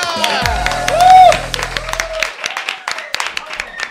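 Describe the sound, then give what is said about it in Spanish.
An audience of a weekly current-affairs quiz show applauds comedian Carlos Langa steadily for about four seconds, with dense, crackling claps, a brief whistle-like rising tone early on, and a low sustained tone underneath that fades partway through. “que siga ese aplauso para mi compañero Carlos Langa.”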